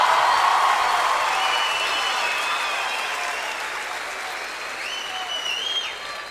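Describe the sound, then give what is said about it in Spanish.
An audience applauds steadily for several seconds, a dense wash of clapping with faint whistles rising over it, gradually thinning toward the end. “Nos vamos llenos de alegría, llenos de aplausos, llenos de voces, llenos de ojos.”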